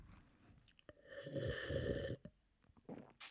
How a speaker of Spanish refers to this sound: Y con este sonido desagradable de tomar agua los voy a dejar.